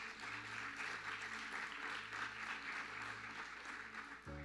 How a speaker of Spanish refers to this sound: ¿Sabes? Dale un fuerte aplauso si lo crees.